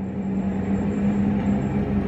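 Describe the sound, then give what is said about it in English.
A train rumbles past, a steady, loud mechanical roar with a constant low hum running through it for the full two seconds, and no voices. “Transportation authority? I need to get on this train.”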